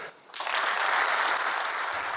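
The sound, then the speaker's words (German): An audience at the first meeting founding the Alternative für Deutschland (AfD) in Oberursel bursts into applause for Konrad Adam after a brief quiet moment, a dense, steady wash of many hands clapping that stays loud and even until the end. “Der Applaus gilt Konrad Adam, einem pensionierten Journalisten, der für die Frankfurter Allgemeine Zeitung und für die Welt gearbeitet hatte.”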